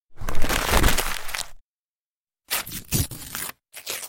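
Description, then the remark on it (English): Paper is torn by a woman's hands in a long, ragged rip, then after a pause comes a series of shorter tearing bursts, fairly loud, with no voices. “and tearing it with her hands.”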